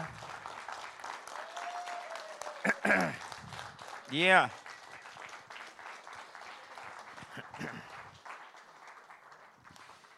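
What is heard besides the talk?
audience clapping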